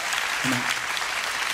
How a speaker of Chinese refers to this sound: 相信的拍手，把荣耀归给主耶稣，好不好？阿门。